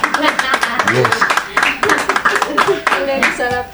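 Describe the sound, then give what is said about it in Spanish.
A short burst of hand clapping for the people present, irregular and fairly loud, mixed with voices calling out and talking over it for a few seconds. “Le damos un aplauso a los que estamos acá, por favor.”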